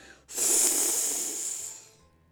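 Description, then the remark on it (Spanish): A lion's single heavy breath blows out loud, a long airy rush lasting under two seconds before fading away, with no voices around it. “Solo que no era viento, sino el aliento de un león. Sus ronquidos eran como los truenos de una tormenta.”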